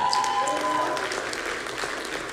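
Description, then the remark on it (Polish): A crowd claps steadily, a dense patter of many hands that holds at an even level throughout, with a brief high tone near the start. “Możemy sobie zabić brawo.”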